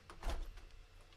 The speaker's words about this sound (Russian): Мне, мне бьют дверь. Сейчас мне пальцы оторвут тут, мне кажется, или отрежут дверью.